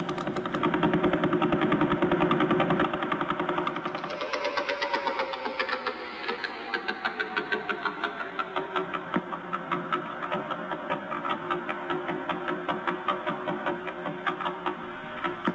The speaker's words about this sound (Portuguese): Uh, agora nós iremos trazer a pulsar de vela. Vocês se lembram dela, né? Claro mas o som dela está muito rápido, então nós vamos diminuir a velocidade, tá bom?